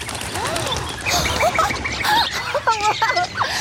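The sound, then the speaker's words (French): A dense chorus of hundreds of birds clustered around a large oak tree about ten metres away, chirping and twittering at once; overlapping high calls form a continuous, busy chatter, fairly loud, with no voices. “À une dizaine de mètres d'eux, une nuée d'oiseaux s'est agglutinée autour d'un grand chêne.”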